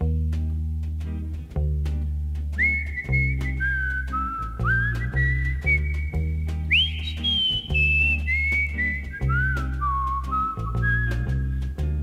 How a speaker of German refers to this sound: Wir hören den Song … von …, den … interpretiert.